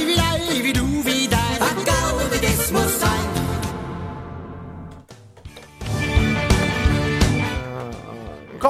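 A short burst of a played song: full, driving music with steady drums and bright layered instruments, briefly thinning out and quieting before surging back loud for the final seconds.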